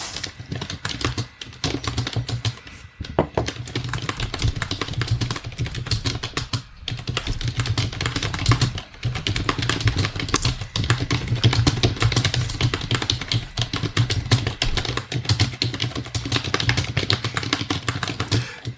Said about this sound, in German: warum ja, verprügelst du deine Tastatur?